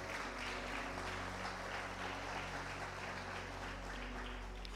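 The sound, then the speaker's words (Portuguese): A church audience applauds for Jesus after a prayer, a dense, continuous patter of many hands clapping at an even loudness throughout, with a low steady hum underneath and no voices. “E dá mais uma salva de palmas para Jesus.”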